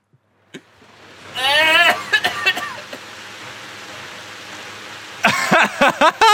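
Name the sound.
wind blowing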